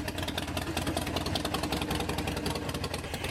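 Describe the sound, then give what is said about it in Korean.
A Harley-Davidson motorcycle engine idles steadily, a loping low rumble with rapid rhythmic pulses and mechanical rattle, continuous and fairly loud with no one speaking. “남편의 이런 지지 속에 리디아 씨는 지난 2013년 자신의 첫 할리 데이비슨 모터사이클을 샀습니다.”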